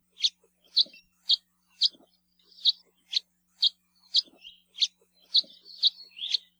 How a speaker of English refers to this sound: House Finch calls, on the other hand, are a rather nasally "cheep," and are given by both males and females when they're foraging to let each other know where they are.